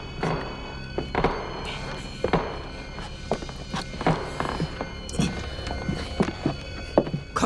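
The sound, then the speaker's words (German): Soft, irregular footsteps thud and tap in a cautious, uneven rhythm as the three investigators of Die drei Fragezeichen sneak up the staircase to the first floor of Ohm's villa, with faint creaks and shuffles between the muffled steps and no talking. “Vorsichtig und mit leisen Schleichschritten betraten die drei Fragezeichen unbemerkt Ohms Villa und liefen die Treppe in den ersten Stock hinauf.”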